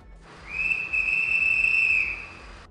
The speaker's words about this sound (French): Tout à coup, un coup de sifflet.